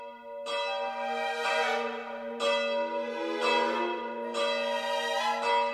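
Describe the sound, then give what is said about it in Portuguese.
The bells of the Torre dos Clérigos church tower toll at midnight, with no one touching them, in a steady sequence of about one loud, ringing strike per second, each stroke overlapping the long resonant hum of the last. No voices. “Recentemente, no dia 2 de cada mês, os sinos da Torre dos Clérigos começavam a tocar à meia-noite, sem ninguém lhes mexer.”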